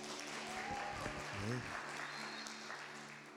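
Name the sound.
audience applause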